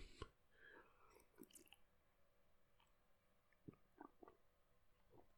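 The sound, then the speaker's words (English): Quiet mouth sounds of someone taking a sip of water: soft slurps, wet clicks and a few gulping swallows in short bursts, with no talking. “Maybe I need a sip of water.”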